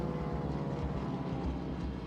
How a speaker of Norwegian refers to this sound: Det er høst, lufta er klar, og over det blå havet mellom Kina og Taiwan suser noen kinesiske krigsfly mot øygruppa.